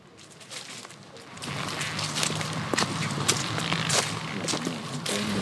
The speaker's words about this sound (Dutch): We lopen nu letterlijk de begroeiing in. Overal blad.